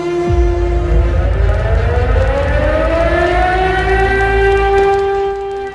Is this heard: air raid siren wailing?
yes